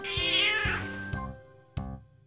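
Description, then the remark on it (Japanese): A loud, drawn-out cat meow, a cat's fighting or angry call, with a strained, wailing tone that rises and then falls, followed by a few short sharp knocks and a brief lower cry. “番組宣伝で流れる猫の声をやめてください。”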